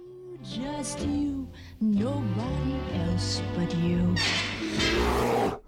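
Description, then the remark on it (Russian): A bear roaring and growling in several loud bursts with rising and falling pitch, ending in a harsh, breathy snarl, from a video game in which the player's druid character turns into a bear. “А ты играешь за друида, который может превращаться в медведя.”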